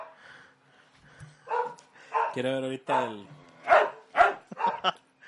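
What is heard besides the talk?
dogs barking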